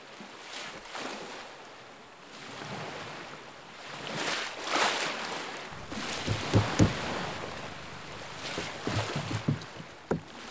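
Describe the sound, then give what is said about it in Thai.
Ocean waves at Pranburi beach wash in and recede in broad, rolling surges, with sharper splashes and knocks in the later part, like water slapping against something. No voices. “ระหว่างทางที่เรากำลังบันทึกเสียงคลื่น เราก็ได้เจอกับกลุ่มชาวประมงที่กำลังซ่อมเรือ และทำปลาหมึกตากแห้งพวกเขาเล่าภาพจำของพื้นที่ชายหาดปราณบุรีให้เราฟัง”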